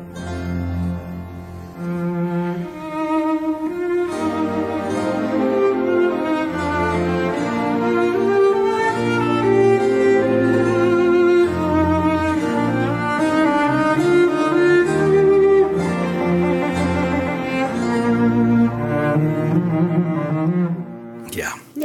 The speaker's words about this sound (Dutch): Oké, laten we even een stukje horen van de klassieke muziek.